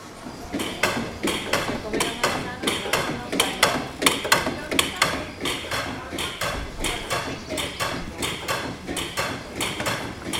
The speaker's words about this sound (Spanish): Eso que suena es un pájaro carpintero de mentira aporreando un árbol ficticio. Interesante, pero menos mal que ya paró.